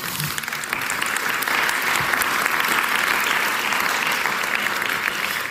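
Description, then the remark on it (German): Sustained audience applause for two volunteers called onto the stage, a dense steady wash of many hands clapping at an even, fairly loud level for several seconds with no speech over it. “Dürfen ihnen einen Applaus geben.”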